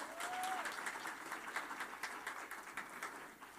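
An audience claps steadily in a dense, crackling wash of applause that holds its level for several seconds, with no voices standing out above it.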